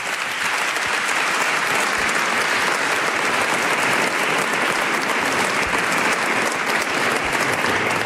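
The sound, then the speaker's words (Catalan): Steady, sustained applause from an audience, a dense wash of many hands clapping at an even loudness for the whole stretch, with no voices standing out. “Aplaudiu, aplaudiu!”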